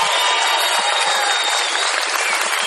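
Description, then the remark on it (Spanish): A theater audience at the Teatro Auditorium in Mar del Plata, at a live taping of the show La Venganza Será Terrible, applauds and cheers, a dense steady wash of clapping with shouts mixed in, loud and unbroken throughout. “Sí, ¿Verdad hay todos, Para que se nota que hay gente. Sí, Más gritos.”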